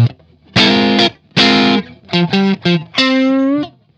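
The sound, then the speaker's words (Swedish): Electric guitar played through a compressor pedal with the ratio turned fully down, so the signal just passes through its circuit; a slightly gritty, effected tone plays a short phrase of sustained chords and quick repeated notes, ending on a held chord, with no talking. “jag tänkte bara lyssna på om dra bort ratio helt på att den går igenom kretsen så hör ni hur den...”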